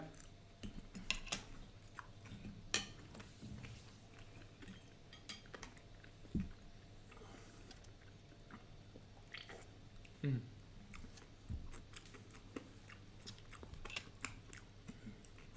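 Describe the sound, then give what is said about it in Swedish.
Wet chewing and mouth sounds with scattered clicks and taps of cutlery against a plate, irregular and fairly quiet, over a low steady room hum with no talking, as people taste a sweet curry herring with a spicy snaps from Örebro. “Ska vi prova en söt currysill då till den här ja, lite spetsiga snapsen då kanske från, från Örebro?”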